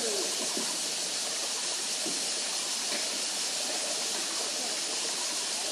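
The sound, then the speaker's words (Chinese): A steady, unbroken rush of flowing stream water in a river valley, a dense hiss that holds at an even loudness throughout, with a few faint soft taps of dripping water. “那还有水的声音、水流的声音、水滴的声音”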